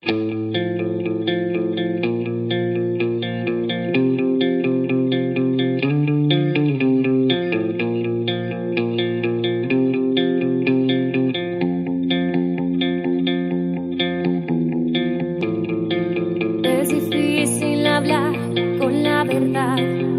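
A band's song plays continuously and loudly for about twenty seconds, dense with chorus-drenched, distorted guitars and steady harmonies, with brighter, crisper high-end accents entering near the end.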